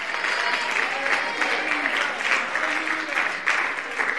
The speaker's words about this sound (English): You ought to clap your hands. You ought to lift your voice. Your children ought to hear you say, That's right, Pastor.